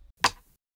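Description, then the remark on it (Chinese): A single layered snare drum hit from a song, two snare sounds combined into one sharp, bright crack, the drumstick sound landing slightly before the snare, with a short rattling decay that fades within about a third of a second. No voices. “那以下是这两种小鼓分开来的声音，这是它们合起来的声音。”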